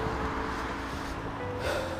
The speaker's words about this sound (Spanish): si escuchan ruido es porque pues vengo en la calle y, de repente ya ven que hay gente que le encanta hacer ruido con sus coches.